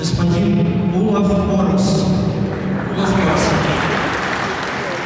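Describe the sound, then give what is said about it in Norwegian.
Loud, dense applause from a crowd at a St. Petersburg memorial medal ceremony in St. Petersburg, steady and sustained, with some voices and murmuring mixed in underneath. “Her får Olav Årås overrakt St. Petersburgs minnemedalje, til stor applaus.”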